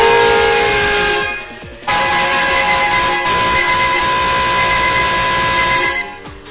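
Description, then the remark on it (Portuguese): A loud truck horn blares in long sustained honks, briefly dropping off before sounding again and holding steady for several seconds, with no voices over it. “Olha a buzina do caminhão!”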